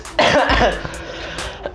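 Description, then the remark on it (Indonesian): A harsh cough bursts out with a throaty, rasping edge, followed by softer breathy throat noises and a couple of faint clicks trailing off over under two seconds. “dari situ udah mulai podcast isinya batuk iya.”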